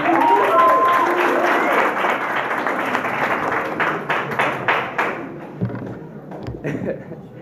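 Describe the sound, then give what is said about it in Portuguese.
Enthusiastic applause from a small group for the champion of an Olympic games event, dense clapping that thins out after about five seconds into a few scattered claps and thumps before fading. “Palmas para a Água também, que foi a grande campeã dessas Olimpíadas.”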